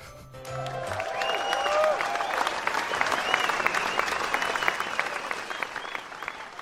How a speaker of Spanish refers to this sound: Un aplauso, pon un aplauso.